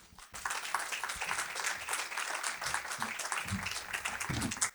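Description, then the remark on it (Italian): An audience breaks into steady applause for a co-host being introduced, many hands clapping in a dense, sustained patter that starts abruptly and continues at an even, fairly loud level throughout. “Fate un applauso all'uomo qualunque”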